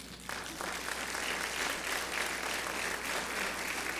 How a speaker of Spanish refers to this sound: ¿Le puedes dar otro aplauso al Señor por eso?